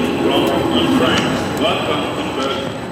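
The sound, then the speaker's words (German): A busy platform at Berlin Hauptbahnhof, Germany, at 17:40, with a steady wash of crowd murmur and rumbling rail noise as the EuroCity train from Warsaw has just arrived; hundreds of people who fled Ukraine, mostly women with children, step off, and indistinct voices mingle throughout at a fairly loud level. “Berlin Hauptbahnhof 17.40 Uhr. Gerade ist der Eurocity aus Warschau angekommen.”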